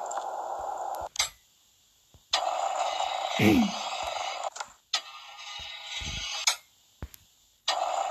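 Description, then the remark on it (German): An alarm clock goes off in harsh, buzzing bursts, roughly a second or more each, separated by brief silences and sharp clicks, with a short low murmur partway through. “Und nervt euch dieser Wecker oder nervt er euch nicht?”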